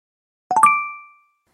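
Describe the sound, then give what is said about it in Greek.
A church bell on the Greek island of Milos struck three times in quick succession, the last stroke ringing on with a clear, bright tone that fades away within a second, with no other sound around it. “Γιατί χτυπούσε η καμπάνα στη Μήλο.”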